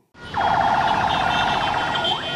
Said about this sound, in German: Der Lärm ist in Ägyptens Hauptstadt Kairo überall. Wildes Hubkonzert auf den verstopften Straßen Tag und Nacht.